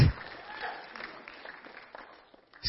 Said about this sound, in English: See, somebody started clapping, now everybody's clapping. And I love it.